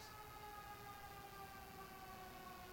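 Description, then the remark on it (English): Emergency vehicle sirens wail steadily and loudly, their layered tones holding throughout with a slight downward drift as they pass by. No one speaks. “We're going to pause just for the uh, sirens to go by real quick.”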